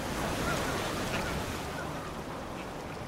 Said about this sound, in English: We followed sea level down as it turned parallel to the shore. The waves crashed against the wild beach where Fred and Verna's children used to do their runs.